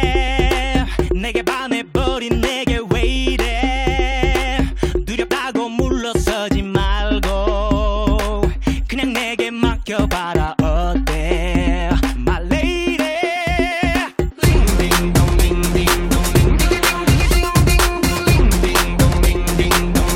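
A loud, dense pop song with punchy beats, strong bass and layered synths, shifting to a fuller, busier section midway through; no talking over it.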